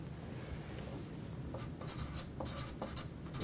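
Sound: pen writing on paper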